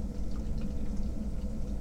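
Beer pours steadily from a can or bottle into a glass, a continuous gurgling, fizzing wash of liquid that keeps an even loudness throughout, with no one speaking.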